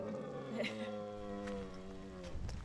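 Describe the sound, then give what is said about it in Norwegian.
A 13- to 14-year-old male lynx lets out one long, drawn-out yowl to draw attention to itself, a steady harmonic call that sags slightly in pitch near the end. It is fairly loud against a faint background. “Hva betyr det når han lager sånn lyd?”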